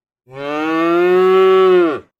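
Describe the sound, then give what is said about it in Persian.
A single long, loud moo from a dairy cow, steady, lasting nearly two seconds before trailing off with a slight downward bend at the end. “ما به دوتا گاو شیرده احتیاج نداریم تازه نگهداری از یه گاو دردسر کمتری داره”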